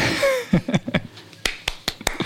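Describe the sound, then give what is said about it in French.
A handful of sharp, separate hand claps at a slow, even pace, fairly loud, with a brief burst of laughter or voice near the start. “On applaudit.”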